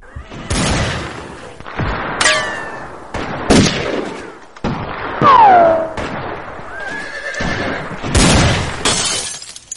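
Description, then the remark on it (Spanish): Several sharp, loud gunshots from outlaws ring out at irregular intervals at a tavern, mixed with crashing, shattering noises and a horse's shrill whinnying in a chaotic, noisy scene. “Al cesar los disparos, sale un hombre corriendo de la taberna.”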